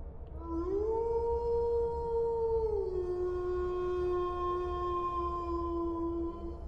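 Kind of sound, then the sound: sound effect, wolves howling sound effect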